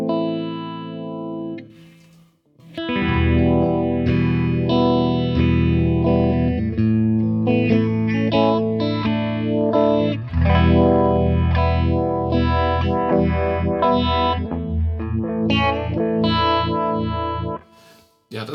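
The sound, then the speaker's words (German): Loud, slightly overdriven electric guitar played through a Classic Vibe, a Uni-Vibe-style modulation effect, its sustained chords swirling and throbbing with a slow, wavering modulation, after a brief pause near the start, with no talking. “das ist jetzt der, der Classic Vibe, also ein, ein, ein Uni-Vibe.”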